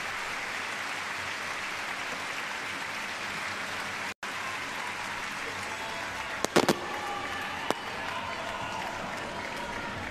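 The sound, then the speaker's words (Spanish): An audience applauds the orchestra with dense, steady clapping that fills the whole stretch, briefly cutting out once, with a few sharper, louder claps or shouts poking through near the end. “Quiero dar un fuerte aplauso a esta maravillosa orquesta, por favor.”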